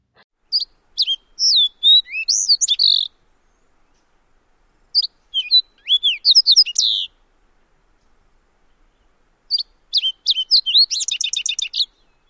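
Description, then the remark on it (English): A fox sparrow sings three separate phrases of rich, sweet whistled and burry notes, each a quick tumbling run, with clean silence between them; the last phrase ends in a rapid buzzy trill. “The fox sparrow song is a series of rich, whistled, and burry notes.”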